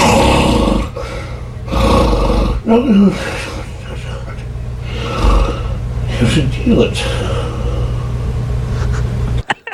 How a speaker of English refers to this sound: Here's another one of his snores.